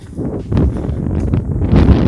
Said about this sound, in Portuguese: Pô, tem um vento agora aqui. Pera aí, pera aí. Ô, oh, ventinho, não, não estraga as coisas.